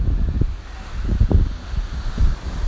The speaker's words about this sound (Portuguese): Hoje estreando com esse barulho de fundo mais conhecido como mar.